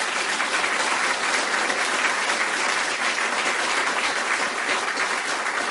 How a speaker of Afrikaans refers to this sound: 'n Lekker applous vir